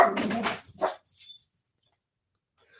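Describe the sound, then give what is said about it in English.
A dog lets out a quick run of loud yelping barks and whines over about a second and a half, then falls silent, leaving only faint hiss at the end. “can see my dog is awesome.”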